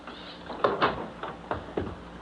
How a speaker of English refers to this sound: Oh, come on in. Close the door.